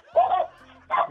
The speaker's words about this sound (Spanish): Ah, caray, a ver. Oye, ¿dónde se escuchan los perros?